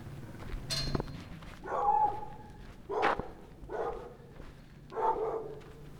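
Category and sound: animal, dogs barking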